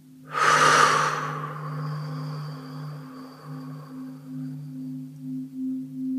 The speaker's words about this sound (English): Take a nice breath, nice deep breath in. Breathe in pure light from above. So breathe in and up, release out and down.